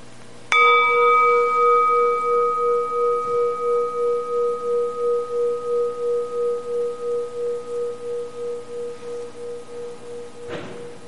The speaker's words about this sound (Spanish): ahora a terminar esta breve meditación, vamos a escuchar a la campana desde empieza hasta el timbre, hasta no es posible oírlo más.